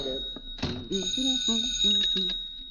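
A shrill telephone bell rings continuously for a few seconds, opening with a brief clatter, while a series of short, low tonal notes pulses underneath.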